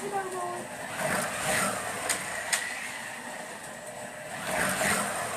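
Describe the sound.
Electric whirring from Carrera Go toy slot cars rises and falls continuously as they race around a track, with a few sharp clicks and faint voices in the background.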